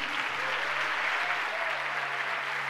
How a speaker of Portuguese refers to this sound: Mais um aplauso a Jesus.